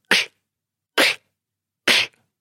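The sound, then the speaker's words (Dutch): Three sharp, breathy inward snare hits beatboxed with the mouth, inhaled inward with a lot of air, evenly spaced about a second apart. Each is a short hissing burst, fairly loud, with silence between and no talking. “ja, zo heb je bijvoorbeeld, eh, eh, net zoals bij die windtechniek, wat ik heel veel gebruikte, was de, de inward case snare noemen ze dat.”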